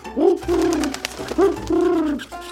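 A pigeon coos in two throaty, rolling phrases separated by a short pause, soft but clear against a quiet background with no talking.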